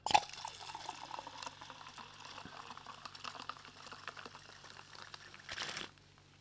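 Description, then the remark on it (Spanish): Soda pours steadily into a glass for several seconds, a continuous fizzy, splashing rush with crackling bubbles, briefly surging louder near the end before stopping abruptly. “Casi se llama Soda Podcast y bueno, yo lo sirvo.”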